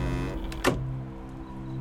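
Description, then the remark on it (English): A cellar door creaks shut with a steady, low groaning drone, broken by one brief dull knock partway through. No voices. “the cellar door creaked closed, snuffing out the last of the light.”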